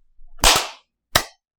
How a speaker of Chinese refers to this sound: All right，啊，拍手拍手，Three, two, one。